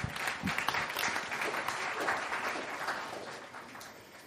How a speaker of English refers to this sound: They're great. Let's give them a clap.